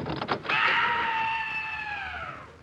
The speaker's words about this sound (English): What was that shriek? nothing. It came from the furnace. The furnace? Yes. I used to burn oil, but I converted to people.